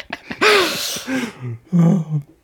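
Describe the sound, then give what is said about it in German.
Two rough coughs, the first longer and harsher with a raspy catch, the second shorter after a brief pause, with no one speaking. “Oh, sorry, ich bin gerade komplett am Husten.”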